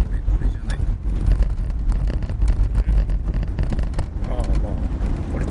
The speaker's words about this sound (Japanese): これクーラーつけようかつけた上で、うん、風が風の音がどう影響を及ぼすかわからないボボボボボって言うかもしれない